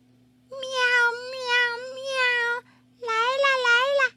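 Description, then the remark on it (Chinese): A little patterned cat meows twice: a long, drawn-out, wavering high-pitched call, then a shorter, rising second meow after a brief pause. Both are loud and clear, with no talking. “小狗喊：“小花猫，小花猫，快来帮忙拔萝卜！”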